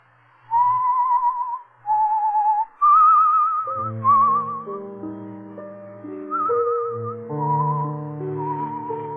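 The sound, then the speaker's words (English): Someone whistles a slow, wavering melody of sustained notes with vibrato, clear; partway through, soft instrumental accompaniment joins beneath the whistled tune. “You, uh, you whistle yourself like that very often?”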